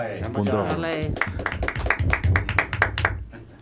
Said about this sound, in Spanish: No, no, si tengo, si tengo aquí los aplausos para las mujeres, ¿eh? no os penséis que...